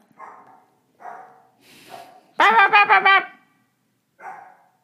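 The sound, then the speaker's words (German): Dogs bark in short separate bursts, several faint, with a louder run of quick, yelping barks in the middle. No one speaks. “Das hat die anderen Hunde gehört, ne? Von wo kamen die anderen Hunde?”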